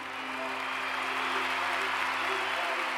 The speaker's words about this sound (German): Auf den Straßen Londons brandet Applaus auf. Der Applaus für die Rede von Charles Spencer dringt von den Straßen Londons durch die Mauern der Westminster Abbey. Hunderte Menschen in der Kirche schließen sich an.